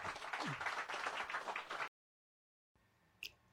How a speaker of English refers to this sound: So let's give him a round of applause for coming.